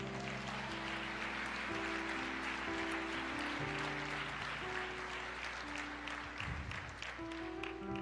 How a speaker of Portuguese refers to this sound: Aleluia. Aplauda ao Senhor.